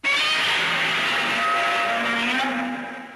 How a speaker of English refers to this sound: Yes, they absolutely did. They used the original uh, roar from Godzilla.